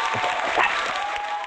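Steady applause welcomes a singer about to perform a song, a dense wash of many hands clapping at an even, moderately loud level with no voices standing out.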